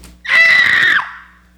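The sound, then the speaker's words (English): A person lets out a loud, imitated shriek, one sustained high-pitched scream lasting under a second, on its own, with a brief fading tail. “It resembles the sound of what it is. This word is that, kradzo.”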